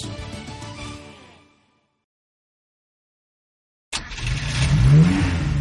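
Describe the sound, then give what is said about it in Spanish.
A safety car's engine revs loudly, fades out into about two seconds of silence, then roars back abruptly with a rising, revving whine. No voices are heard. “Cuando hay follón, sale un coche que se llama el safety car.”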